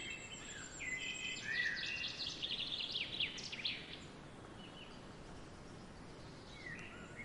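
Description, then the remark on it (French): Bright, rapid birdsong with chirps and trills over a soft outdoor hiss near a well, busiest in the first few seconds before thinning out to a few scattered calls. No one speaks. “D'un coup, un très beau chant d'oiseaux vous ramène là où vous vous trouvez, près du puits.”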